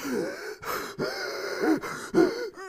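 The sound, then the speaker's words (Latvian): A voice imitates the heavy, labored breathing of exhausted runners dropping out of a 3 km race at a stadium, a run of loud gasping inhales and exhales in an uneven rhythm, with no other sounds around it. “izstājās ārā, elpotam smagi.”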